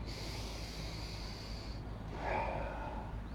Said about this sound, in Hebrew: אז בואו ננשום. כל שעה איזה חמש נשימות טובות, זה מחולל שינוי מטורף.